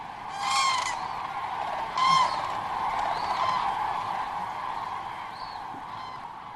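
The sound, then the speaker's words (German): A flock of migrating geese honking in flight on their way to wintering grounds, with harsh, repeated calls overlapping above a steady rushing background of wind or air. “sie fliegen jetzt 2000 Kilometer und äh, sie kommen irgendwo an, wo sie überwintern und in einer ganz anderen Gegend.”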